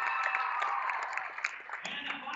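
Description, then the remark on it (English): A basketball crowd at a game between Giltner and Lawrence Nelson applauds in a steady, dense wash of clapping and cheering, with scattered sharper claps poking through and a slight shift in the roar near the end. “And uh, really a great crowd on hand here between Giltner and Lawrence Nelson, both traveling very well to support their team here today.”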